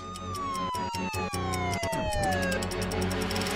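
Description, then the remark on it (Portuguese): A police car siren wails loudly as the police arrive, its high tones gliding steadily downward in pitch, over a dense, continuous background with a few sharp clicks early on. “E já lá vinha a polícia.”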